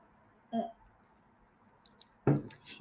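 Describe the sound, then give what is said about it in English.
Two short mouth sounds of someone sipping merlot red wine, a soft wet slurp followed by a louder gulp, with faint clicks in between and no talking. “let me let me take a, another fucking sip of this fucking merlot”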